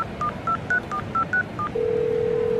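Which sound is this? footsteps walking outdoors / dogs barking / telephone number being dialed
telephone number being dialed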